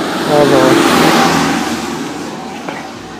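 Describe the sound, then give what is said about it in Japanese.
Cars pass by on a busy road one after another; a car rushes past with a loud, rising engine whoosh that swells early and then fades as it moves away, leaving a steady road rumble. “車がねバンバン通って申し訳ないですが”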